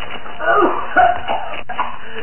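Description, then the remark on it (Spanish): A boy coughs from the dust of a rock collapse, several times in short, irregular bursts, moderately loud, with strained breathy pauses between the coughs and no other sounds around them. “El polvo lo hace toser.”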